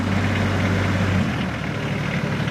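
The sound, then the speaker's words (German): A vehicle carrying an extra 2,000 litres of water drives up, its heavy engine running loudly; the deep steady drone drops away about halfway through as the engine throttles down, leaving a broad, rough rumble behind. No one speaks. “Wir haben hier 400 Liter Wasser drin, haben aber noch ein Fahrzeug mit, mit 2000 Liter Wasser extra. Und der fährt jetzt hoch.”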